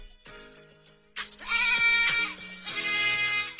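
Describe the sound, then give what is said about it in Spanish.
A goat bleats loudly with an autotuned, pitch-corrected warble, its cry sliding in stepped, synthetic-sounding tones over a musical backing for a few seconds. “Ahí está con autotune.”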